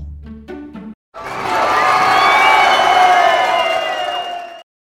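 A brief voice at the start gives way to about three and a half seconds of a loud applause sound effect, many hands clapping steadily amid cheers and whistles, then it cuts off abruptly.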